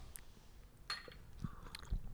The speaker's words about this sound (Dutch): Die is gewoon genieten thee. En dit is op biologisch eh, wezen geproduceerd. Dus probeer het, is dus echt heerlijk. Oké, nou laten we allemaal een slokje proberen.